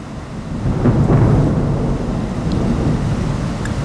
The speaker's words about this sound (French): Je regarde autour de moi la, la pluie entre en par la fenêtre ouverte.